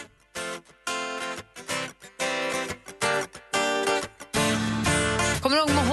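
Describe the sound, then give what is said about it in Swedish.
A newly released pop song plays up front, a sung vocal line in short, choppy phrases over bright harmonies, then a thumping bass beat kicks in for the final couple of seconds. “har en låt tillsammans som eh, är helt ny och ute nu”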